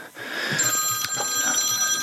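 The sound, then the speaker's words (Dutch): A telephone rings for the mayor of Terschelling, Caroline van de Pol, during a council meeting, with a steady electronic tone that keeps sounding through the moment, fairly clear against quiet background noise, with no one speaking. “De bonusquote komt van de burgemeester van Terschelling, Caroline van de Pol, VVD die tijdens de raadsvergadering afgelopen week een telefoontje kreeg voor een andere baan.”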